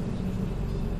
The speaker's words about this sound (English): that is the sound of a rickshaw or a tuk tuk. It seems very distinctive, and you can always tell if it's around.